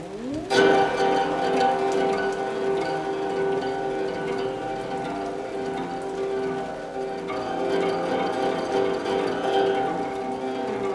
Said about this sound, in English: Sitting in the little wooden hut, he listened to the rain and felt the excitement of inspiration.